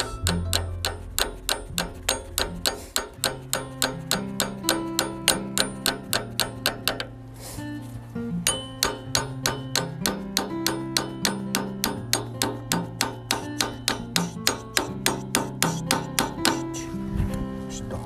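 Rapid, steady hammer blows clang against metal, several per second, with a brief pause partway through, as the chain-tensioning part of a machine is hammered. A low droning hum runs underneath, and no one speaks.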